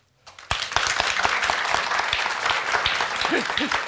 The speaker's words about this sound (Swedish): Nu ska vi fråga här av publiken genom att applådera. Vem av er har hetit sig för mätt den här julhelgen?